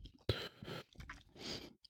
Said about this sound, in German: Ich schluck zu Ende einen Kuchen runter.